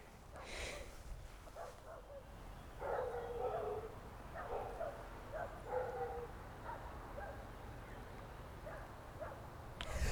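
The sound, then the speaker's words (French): Dogs bark far off in repeated bursts, the yaps thin and softened by distance over a steady low background rumble, heard from the middle of a field on a windy, sunny day, with no one speaking nearby. “Autant je n'aime pas les chiens qui aboient, pourtant quand je les entends de loin, ben, je les aime bien.”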